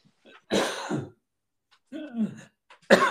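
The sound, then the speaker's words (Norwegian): A person coughs and sputters after swallowing coffee the wrong way: two harsh, strained bursts with a gap between, then a sharp third cough cut off at the end. “Svelga kaffen feil.”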